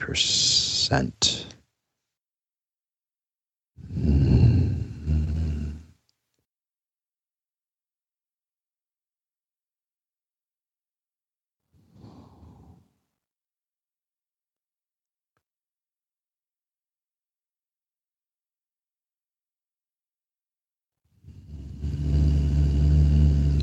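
human body sound, deep breathing in

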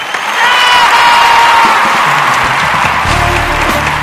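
crowd, applause and cheering

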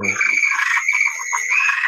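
sound effect, toad croaking sound effect

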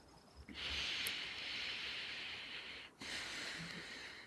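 human body sound, slow deep breathing

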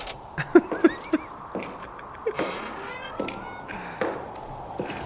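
sound effect, footsteps of someone walking

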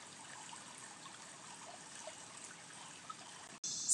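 household object, water trickling

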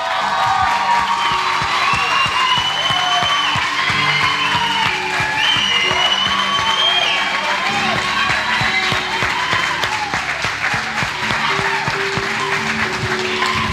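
crowd, audience applause and cheering

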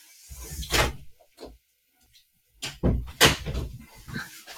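household object, door being opened

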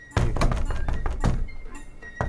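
household object, knocking on a door

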